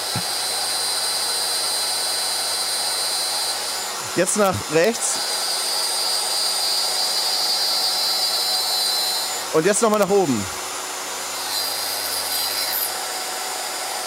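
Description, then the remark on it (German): A small milling motor whines steadily and continuously while plunging a few millimetres into wood and routing along it, first to the left, then downward; a high droning hum that never stops, with a person briefly speaking twice over it. “Also ich lasse den Fräsmotor jetzt hier in das Holz eintauchen.”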